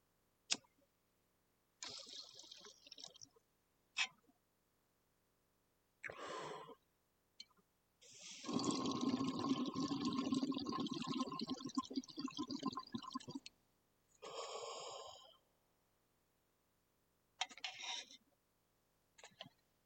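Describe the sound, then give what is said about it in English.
A few sharp lighter clicks, mixed with short hissing bursts and one long rough, crackling stretch in the middle, then more clicks near the end, as a lighter is used to smoke weed. “If you hear click, click, cough, coughs, you already know.”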